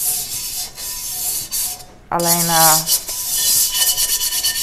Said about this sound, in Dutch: Ik was even een wok en dat maakt geluid. Natuurlijk maakt dat geluid. Met een afwasborstel.